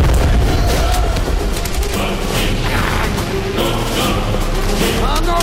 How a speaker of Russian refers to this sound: Красноармеец, сраженный пулей, не успевает бросить гранату. Она взрывается в его руке.